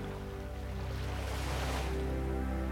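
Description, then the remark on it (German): Continuous ocean surf washes steadily onto a shore, with a soft swelling rush midway, over a low, steady hum in the background. No voices are present. “Höre das Meeresrauschen.”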